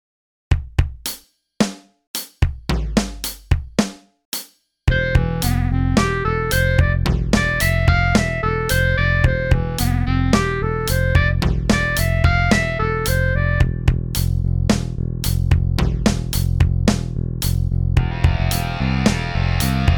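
A short instrumental track made on an iPad Pro with Beatmaker 3, using soundfonts and SWAM Clarinet, opens with a few sharp, isolated percussive hits, then swells into a full, steady groove with bass, beat and a bright melodic line, loud and without any voices.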